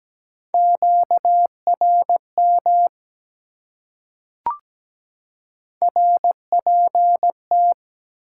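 A steady, clear Morse code tone keys out dots and dashes at 17 words per minute in two bursts, separated by a short pause broken only by a single sharp click.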